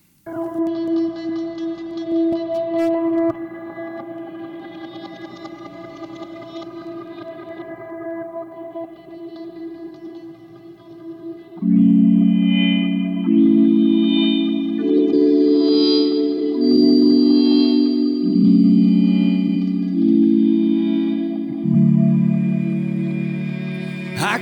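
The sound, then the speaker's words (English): An instrumental band intro opens with a drifting, echo-soaked drone, then about halfway through swells louder as full chords step through a slow progression. No voices are heard. “Here is a song from a previous project”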